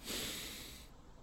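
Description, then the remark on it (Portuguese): A single deep, forceful breath drawn in through the nose and mouth, loud, lasting under a second before cutting off into near silence as the breath is held for about 30 seconds. “Você prende a respiração por uns 30 segundos, aí dá até para fazer uns.”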